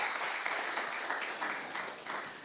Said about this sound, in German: Herzlichen Dank der Band. Ein Applaus an euch. Ihr seid klasse.